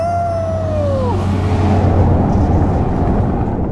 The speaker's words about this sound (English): Pretty sure that was a livestock truck, but no livestock in it.